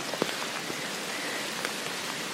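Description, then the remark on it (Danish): Steady heavy rain hisses across a broad band, with scattered louder drops pattering on a surface; no voices, just the constant wash of downpour. “Og nu begynder godt nok at regne meget.”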